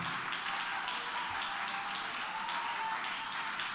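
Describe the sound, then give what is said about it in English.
An audience claps hands in praise to the Lord after a closing prayer, a dense, steady wash of many overlapping claps that holds at an even level throughout, with no voices standing out. “Give the Lord a good hand clap of praise and lift your voice in worship to Him.”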